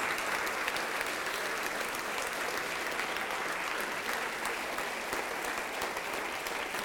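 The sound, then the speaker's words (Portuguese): Steady, sustained applause from an audience at a Christian worship service as a preacher calls people forward, a dense wash of many hands clapping at an even level throughout with no voices standing out. “Vem, vem, vem, filho pródigo, vem, filha pródiga, e vamos aplaudir mais.”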